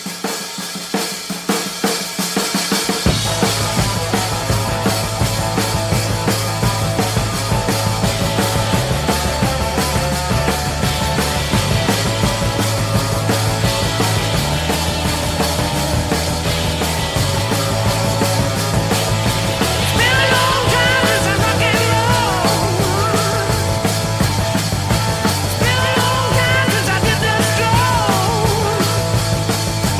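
A loud hard rock song kicks in after a brief low rumble, with a driving full-band sound, heavy bass and dense guitars continuing steadily throughout, no talking over it.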